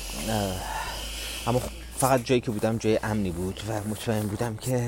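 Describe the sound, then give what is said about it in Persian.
Strong wind blows in a steady, hissing rush that fills the background without letup, while a man talks over it throughout. “میگم ببخشید این سر که میشنوین رو این سر که میشنوین رو من خواهی میکنم چون اینقدر باد زیاده”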